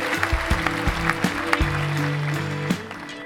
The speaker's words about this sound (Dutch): Graag een hartelijk applaus